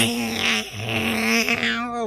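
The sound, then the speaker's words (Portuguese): A person imitates a cat with one loud, drawn-out meow, a steady nasal wail held for about two seconds and rising slightly at the end. “O bicho dá tá um miadozão, o cara se treme todinho.”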